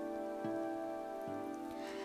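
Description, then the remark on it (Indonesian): Soft, steady patter of light rain at night, a gentle drizzle carried on a night breeze, blended with a sustained low musical drone and a few quiet thumps; no one speaks. “Semilir angin malam membawa rintik hujan serupa salju menampis di wajahku.”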